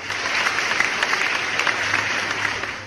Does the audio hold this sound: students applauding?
yes